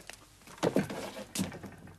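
The second door of a flat, leading to the bathroom, is opened: a muffled clunk of the latch, then a second soft thump about a second later, with no voices.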